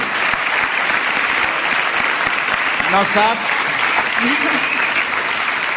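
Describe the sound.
Sustained, dense audience applause fills the whole stretch at a steady loud level, a continuous crackle of many clapping hands, while a voice briefly speaks over it toward the end.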